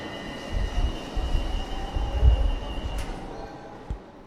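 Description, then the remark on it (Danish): A Copenhagen M1 metro train bound for Vestermar rumbles steadily along its rails, with a low continuous roar, rhythmic wheel thumps and a faint high whine running throughout. “Jeg hoppede på metroen mod Vestermar og Naturcenter Amager for at snakke med Jes Ågaard.”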